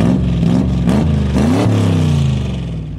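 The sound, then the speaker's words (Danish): A sports car engine revs loudly while being test-driven, its pitch climbing and dropping in repeated bursts of throttle before settling into a steady, throaty growl. “han kan ingenting høre hen over larmen fra motoren på sportsvognen”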